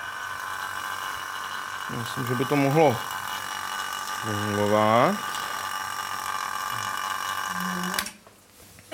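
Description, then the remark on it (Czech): A steady mechanical hum from a vacuum pump pumping air out of a vessel holding a small bell drones throughout, fairly loud, while a man speaks briefly over it; the sound shifts abruptly near the end. “A zkuste se pak během toho pokusu dívat, eh, dívat na kladívko, toho, toho zvonečku, u kterého by tedy mělo být vidět, že se, eh, že se hýbe, ale zvonek možná nebude slyšet, pakliže odčerpeme dost vzduchu.”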